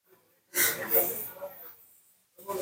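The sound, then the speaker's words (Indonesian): A deep, airy breath taken in and slowly exhaled during a guided relaxation, a long breathy rush lasting about a second before fading into quiet, followed by the start of another breath. “Tarik nafas dalam dan hembuskan perlahan.”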